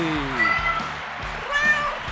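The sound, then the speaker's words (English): A cat named Bucky meows in a couple of drawn-out, wavering calls, fairly clear, over a low steady hum with faint background noise, at New York's historic Stranded Theater on Broadway. “Now the star of life with Bucky, her royal buckiness, the world's most amazing cat, Bucky.”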